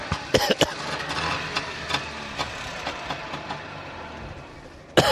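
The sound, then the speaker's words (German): A small two-stroke engine of an original 1976 Trabant sedan idles steadily with a buzzy, rattling, irregular beat during a short driving lesson on Rügen, Germany. A few short coughs break through near the start and end. “hat mir eine kurze Fahrstunde im Trabant gegeben”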